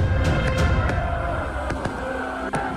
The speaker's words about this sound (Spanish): El cielo completamente teñido de rojo. Fuegos artificiales. Bengalas.